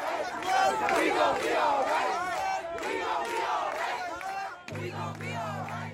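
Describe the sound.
A large protest crowd chants together in the street, many voices rising and falling in a steady rhythmic call, loud and dense throughout with some shouting mixed in.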